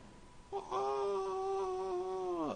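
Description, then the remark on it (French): A single long, drawn-out groan of disappointment from a man's voice, disgusted that his mobile phone plans cost much more in Canada, holding a steady pitch for about two seconds before dropping off, heard alone and slightly distant. “ça, c'est la voix de … qui est dégoûté parce que ses forfaits lui coûtent beaucoup plus cher au Canada”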